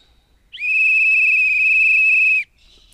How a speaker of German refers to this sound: Ja, dann bitteschön, hier ist die Pfeife. Also, ich probiere sie mal aus.